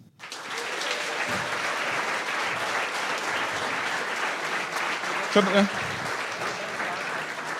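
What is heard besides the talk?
audience applause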